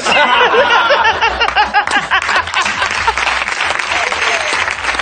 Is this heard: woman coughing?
no